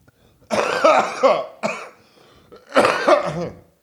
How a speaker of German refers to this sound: Ich huste mal kurz.